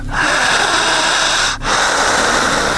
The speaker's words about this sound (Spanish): cerrar los ojos, intensa su respiración, jalando el aire, fuerte, más profunda, intensa. Jalando el aire.